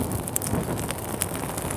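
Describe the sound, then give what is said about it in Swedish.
Steady crackling of a campfire, with scattered sharp pops and snaps over a dense, rustling hiss, no voices present. “Ni hör ju alltså det här underbara sprakandet.”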